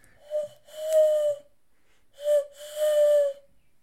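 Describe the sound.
A person imitates an eagle owl's hoot twice. Each call is a short breathy note followed by a longer, steady hooting tone, mid-pitched and fairly loud, with no talking.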